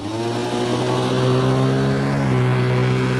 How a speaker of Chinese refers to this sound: 随即，那辆汽车加速的朝他们行驶过来。